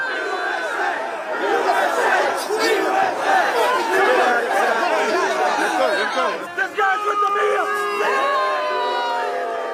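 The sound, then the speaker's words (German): A large, rowdy crowd at the Capitol riots in Washington shouts and chants in unison, including "CNN sucks", many voices overlapping into a dense continuous roar with rising yells throughout, loud. “Das sind die Capitol Riots in Washington.”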